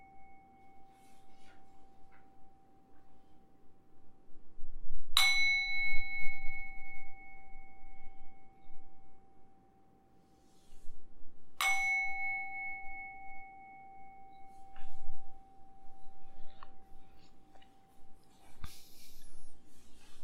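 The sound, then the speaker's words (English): A meditation bell is struck twice, several seconds apart, at the end of a meditation session, each strike blooming into a clear, sustained ringing tone that slowly fades, with no talking. “now we are reaching to the end of the meditation session i will ring the bell three times then you can come out of the meditation”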